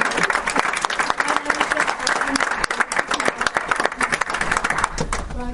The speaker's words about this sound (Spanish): un aplauso